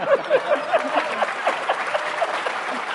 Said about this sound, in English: The bad precedents are going to come back up uh, as our ticket crew takes the stage, but let's give a round of applause to representatives Mayor Turner and Ross Ramsey.